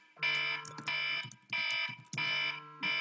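smoke alarm beeping

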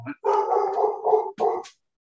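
dogs barking

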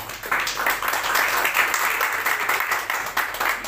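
audience applause

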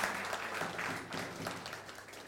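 audience applause

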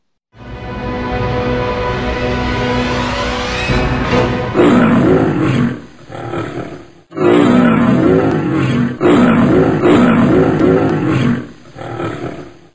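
lion roaring

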